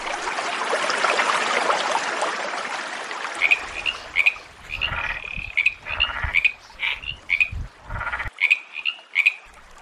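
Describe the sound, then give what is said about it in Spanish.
Frogs croak in a busy, repeated chorus of short bright calls over a steady wash of background noise, loud, with no one speaking. “Otro que carga con sus hijos a donde sea es la rana macho, que educa a sus crías hasta que son adultas y las ayuda a independizarse, pues las lleva a nuevos charcos para evitar crisis alimentarias y de incesto.”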